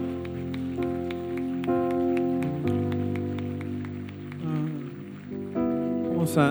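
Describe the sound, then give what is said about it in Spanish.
An audience applauds for the Lord with a dense, steady patter of many hands clapping, sustained over held musical chords and tones that shift every second or two, with a brief swell near the end. “Vamos a dar un, un aplauso a nuestro Señor.”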